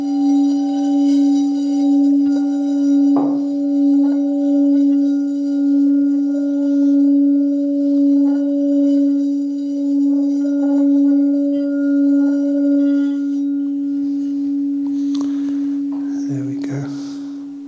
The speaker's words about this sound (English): So now ring the gong three times. When the last sound of the gong vanishes, fades away, then you can let your eyes open to end the meditation. Actually, I won't ring the gong. I will let it chime.